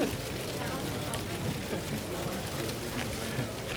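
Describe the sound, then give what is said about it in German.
Continuous dry rustling of a palm leaf, a crackly hiss that stays fairly even throughout with small flickers of scraping texture and no clear pauses. “Äh, ich könnte das Rascheln aufnehmen.”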